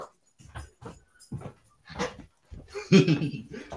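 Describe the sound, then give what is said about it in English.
Dogs wanting to be let out the back door whimper and let out short, yelping barks in uneven bursts, building to a louder, more insistent cluster of barks toward the end. “I forgot I hadn't left the back door open for my dogs to get out.”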